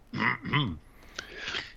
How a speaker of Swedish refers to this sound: Ja, nu börjar jag hosta.